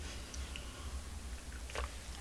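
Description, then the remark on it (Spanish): A quiet sip of cooled, unsweetened coffee from a cup: a few faint mouth clicks followed by a short, soft slurp near the end, over a low steady hum, with no talking. “Después de este primer sorbito me voy a una cuestión”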